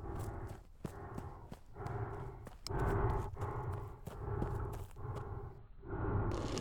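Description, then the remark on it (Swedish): Heavy, thudding footsteps of a large creature plod along in a steady rhythm, loud, with rough, heavy panting or rumbling between the steps and no talking; the creature has come out of an opening as stones rattle, following people running toward a cabin. “Tunga fotsteg.”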